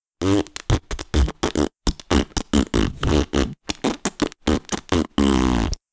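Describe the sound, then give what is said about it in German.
A voice imitates fart noises, mimicking how a pig with an anus in place of a mouth communicates, in a rapid, loud series of sputtering, buzzy bursts with short gaps, ending in one longer, sustained raspberry; no actual words are spoken. “Dieses Schwein hat auch keinen Mund, es hat ein Arschloch mitten im Gesicht ja. und verständigt sich ungefähr so.”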